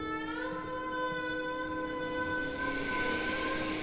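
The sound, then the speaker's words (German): A train pulls in with its brakes screeching: a steady, piercing metallic whine held over a low rumble, swelling louder and brighter toward the end. No one speaks. “Also wenn da ein Zug einfährt und, und die Bremsen angehen, das ist so ein Geräusch, das nimmt alles gefangen.”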